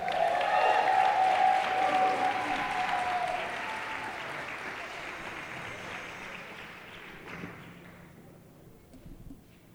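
Sustained audience applause welcoming a special guest in the morning, dense at first, with a few cheers riding on top, gradually thinning and fading out toward the end.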